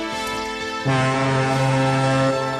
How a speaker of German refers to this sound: Das ging ja gerade noch mal gut. Der Kapitän lässt vor Freude die Schiffssirene pfeifen.